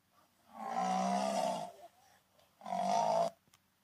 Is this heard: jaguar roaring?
yes